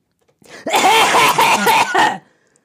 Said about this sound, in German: Man hört mich, glaube ich, trotzdem, weil wir ja im gleichen Raum sind. Ich könnte einfach, mach mal Abhustaste und ich huste so laut, dass man mich trotzdem noch hört.